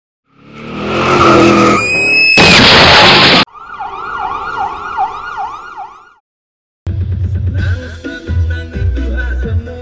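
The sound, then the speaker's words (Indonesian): A car roars past in front with a tire screech, then a wailing siren rises and falls for a few seconds before a burst of loud, rhythmic music-like sound. “Eh, wa, depan mobil apa, wak, wak, wak, wak.”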